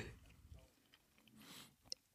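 Quiet chewing of a scone with soft crunchy bites and mouth noises, a couple of sharper crumbly crackles near the end, no talking.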